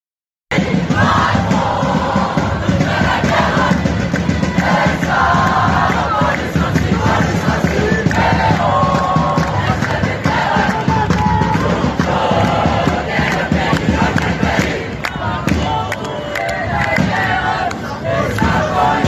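A loud, dense crowd of protesters in France shouting and chanting together, a continuous roar of many voices that stays intense for the whole stretch, with rhythmic bursts of yelling rising above the din.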